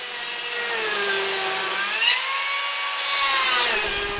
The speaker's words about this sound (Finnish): aika hyvin pysyy naisella myös moottorisaha hyppysissä.